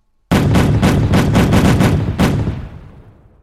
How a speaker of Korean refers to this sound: 우리가 거느린 함선들을 좌우 양편으로 나누어 함포와 화살을 교대로 보구 쪽으로 퍼부어서 우리의 위세를 보여줍시다. 그럽시다. 보수는 함포를 발포하라!